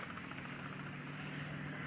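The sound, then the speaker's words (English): An army helicopter taking off, heard as a steady, continuous engine drone with a low humming tone underneath, holding an even loudness for the whole stretch with no voices. “One Army helicopter is taking off.”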